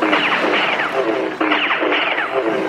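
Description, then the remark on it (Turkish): Loud, rapid bursts of laser gun blasts, each a quick descending electronic zap, fired in a near-continuous volley with a brief break midway, with no talking. “Si silah sesleri. Ustanın topuna lazer sıktım iki carcör.”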